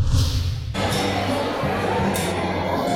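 A busy crowd at the fish market in the market square of Carúpano, at the entrance to the Paria peninsula, where mostly women sell fish and shout offering it, fills the scene with a continuous, dense hubbub of overlapping voices and clatter, steady and fairly loud throughout, with no single speaker standing out.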